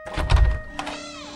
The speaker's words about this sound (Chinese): 他猛然用力地推开房门